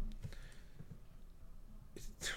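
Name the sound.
computer mouse clicking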